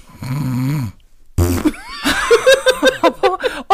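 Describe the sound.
A voice imitates a long, buzzing snore, then after a short pause blows a loud, sputtering raspberry like a fart, trailing into a burst of rhythmic laughter.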